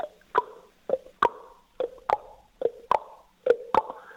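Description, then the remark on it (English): Rapid, evenly spaced hoofbeats of a Paso Fino horse clatter sharply on a hard track in the middle of the houses, a quick four-beat rhythm of crisp, ringing knocks, clear with no voices. “And we stop and we watch the gate of the Paso Fino horse.”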